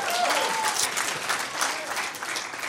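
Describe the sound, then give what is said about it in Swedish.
An audience applauds Johnny Danielsson, clapping steadily for a few seconds, a dense, even wash of many hands with no pauses, holding at a moderate level throughout; a faint whistle-like tone briefly rises early on. “ge Johnny en applåd.”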